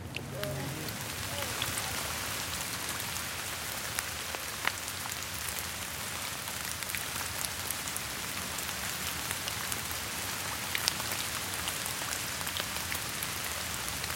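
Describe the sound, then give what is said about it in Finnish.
Steady rain patters on hard surfaces at Malmintori square in Malmi at 11 in the morning, a dense, even hiss with occasional sharper drips, constant throughout, with no one speaking. “Malmintorin kello on 11 aamupäivällä ja sataa vettä.”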